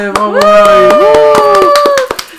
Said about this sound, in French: On applaudit bien fort On applaudit bien fort.